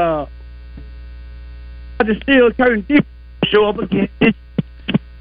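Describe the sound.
A caller from Little Rock on a show's phone line cuts in and out in choppy, clipped bursts, riding on a loud, steady low electrical hum that never lets up.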